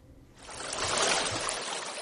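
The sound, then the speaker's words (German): The murky, slow Rio Las Vacas, a stream barely a metre wide, gurgles and burbles steadily through the small town of San Antonio de las Flores south of Guatemala City, fairly loud, swelling in after a quiet start and flowing on with no voices. “Trübe und gemächlich gurgelt der Rio Las Vacas vor sich hin.”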